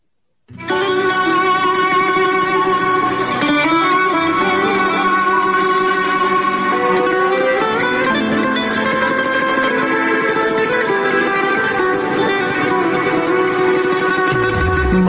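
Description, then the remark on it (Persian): Loud, full-bodied music starts after a brief silence and plays steadily to the end, with layered sustained melodic instruments and a constant rhythmic backing, and no talking over it; a three-minute music break played midway through a program to give listeners and guests a short rest. “طبق روال برنامه به وسط برنامه که میرسیم یه موسیقی پخش میکنیم”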